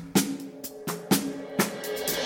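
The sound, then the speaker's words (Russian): Cymbals, played by an orchestral percussionist, struck several times in an uneven rhythm, each bright metallic crash ringing with a shimmering wash that carries into the next hit, moderately loud, with no voices. “Он еще должен уметь играть на литаврах, на тарелках,”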